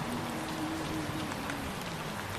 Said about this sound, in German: Und du beobachtest dieses Schauspiel, wie sich ein Teil der Wäsche reinigt und ein Film von Schmutz die Wäscheleine herunterläuft, wie dieser klare, schöne Sommerregen